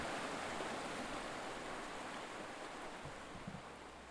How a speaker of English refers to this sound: Camp under the pines on the banks of Pine Creek and fish in the bouncy stream. Or in my case, stand in the bouncy stream.